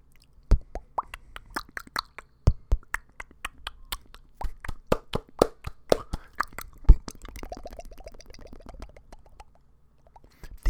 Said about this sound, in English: these are just mouth noises.